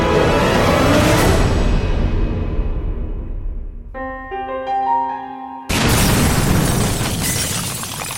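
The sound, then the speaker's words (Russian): A loud bomb explosion roars and slowly fades into rumbling, followed by a few seconds of ringing tones before another harsh burst of blast-like noise erupts; the blast of an explosive device in a briefcase at the Moskovsky Komsomolets newspaper office in Moscow on 17 October 1994. “Взрыв в редакции московского комсомольца прогремел 17 октября 1994 года.”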